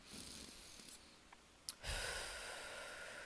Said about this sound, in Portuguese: Eu, nesse momento, vou fechar os meus olhos, vou me concentrar na minha respiração e te convido a fazer o mesmo, de forma que a gente respira fundo